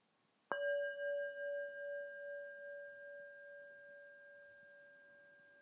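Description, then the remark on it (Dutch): A singing bowl is struck once and rings out with a clear, sustained tone that slowly shimmers and fades over several seconds, heard alone. “ik begin altijd met het geluid van de klankschaal als beginsignaal van deze podcast.”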